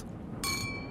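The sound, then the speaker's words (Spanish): Glasses clink together in a toast: one sharp, bright strike whose high, bell-like ring lingers and slowly fades over a low, steady background rumble. “Ahora les pido que brindemos por el presente que hemos defendido y por el futuro que seguiremos defendiendo.”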